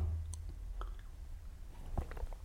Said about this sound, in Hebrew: לשים את האצבע בחוץ רגע לגימה.